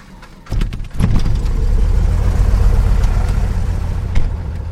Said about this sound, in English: starts the engine of his airplane.